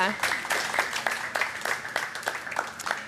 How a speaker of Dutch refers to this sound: Dames en heren, mag ik een warm applaus